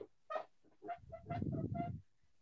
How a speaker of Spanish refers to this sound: Güey, lo que, lo que sí te aceptaría que me dijeras si se escucha como un rechinido, si es la silla escucha.